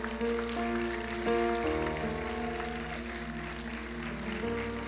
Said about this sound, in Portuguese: Aplauda, Senhor Jesus.